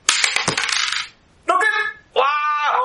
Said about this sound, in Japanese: いきますよ4さんの振り直しレッツサイコロタイム